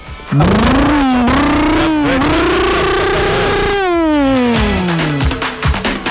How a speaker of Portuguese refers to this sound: Um real, uma moto, zero quilômetro. Olha o motor da moto.